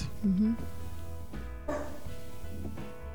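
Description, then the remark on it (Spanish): A female pet dog barks a few times, short sharp woofs spaced across a couple of seconds, heard over a steady low background hum with faint murmuring. “nuestra perra que se duerme y se cae de la silla. Está ladrando.”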